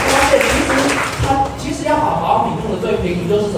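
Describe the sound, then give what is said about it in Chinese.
A crowd applauds a woman steadily for a few seconds, a dense, even wash of clapping at a fairly loud level, with voices calling out over it. “对，这位美女，给她一个掌声。”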